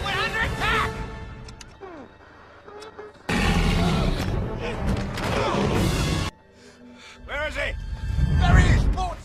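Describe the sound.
A loud, dense burst of gunfire and heavy booms erupts in the middle for a few seconds, with a voice talking over the chaotic noise before and after. Soldiers are shooting at the creature Crusoe, which overturns their boat.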